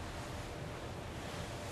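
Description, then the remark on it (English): A steady, loud roar of incredibly big ocean waves in the Strait of Gibraltar, rough black water with strong currents churning continuously, a dense wash of noise with wind mixed in and no voices. “Incredibly big waves.”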